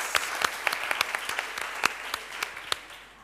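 Audience applause for the audience's two lawyers as they stand up to show themselves: many hands clapping in a dense, irregular patter with sharper individual claps popping out, steady at moderate level and easing slightly toward the end. No one speaks.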